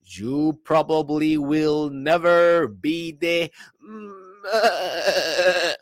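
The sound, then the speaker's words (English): A man speaks briefly, then lets out a long, quavering bleat imitating a goat, loud and trailing off at the end. “That noise is worse and worse every time that I do it.”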